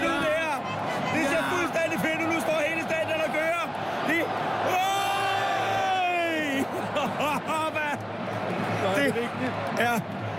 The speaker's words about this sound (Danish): Her er der altså en øh, lille leg gang, hvor at, øh, Real Madrids Ultras, som står bag Mallorcas mål, råber én ting, og så råber hele resten af stadion med. Og det, der altså bliver råbt, det er ikke særlig pænt ting.